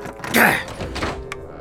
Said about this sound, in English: Why is this door always jammed up?